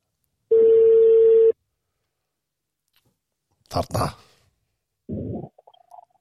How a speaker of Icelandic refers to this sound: þannig að ég ætla að henda símtalinn í gang